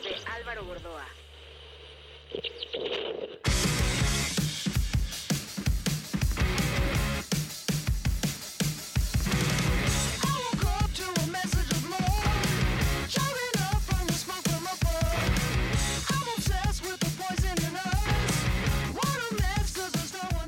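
After a few seconds of a quieter, thinner intro, a loud rock track bursts in with pounding drums, dense distorted guitars and a sung lead vocal, staying full and steady throughout.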